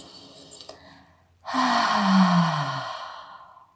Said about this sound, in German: Denn dann kann so eine Massage einfach tiefer wirken und die Entspannung ist noch mal viel, viel tiefer, als wenn wir nur alles so verschlossen in uns hineinatmen. Also gib immer wieder diesen Atem vor, indem du laut ausströmst.